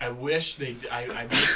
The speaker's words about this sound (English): Sneezing on the air.